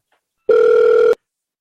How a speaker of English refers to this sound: It's ringing, Dean. Can you hear that?